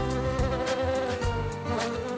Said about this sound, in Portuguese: O zangão zumba à volta do nariz de Zacarias, que começa a ficar zangado